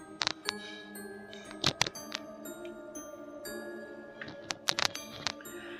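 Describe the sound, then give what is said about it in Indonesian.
Metallic gamelan tones ring and sustain, with sharp struck notes landing in irregular clusters over a steady shimmering drone, quiet, with no voices, heard from outside a tent. “tiba-tiba aku dikagetkan dengan suara gamelan di luar tenda”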